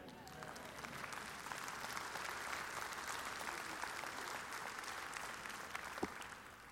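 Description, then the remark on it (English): A church audience applauds steadily, a dense patter of many hands clapping at an even level for several seconds, with faint voices mixed in beneath the clapping. “And I'm always encouraged when you clap.”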